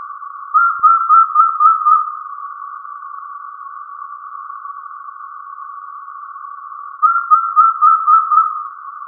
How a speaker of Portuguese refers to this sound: Na década de 90, Galileu Coelho gravou o canto desse animal, o único registro sonoro que temos dele. E o Kilt deu a sorte de encontrar esse som na plataforma online Xenocanto.